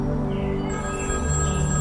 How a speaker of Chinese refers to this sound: 这个时候，黄潇的电话响起，他拿出手机，看到是苏静打来的。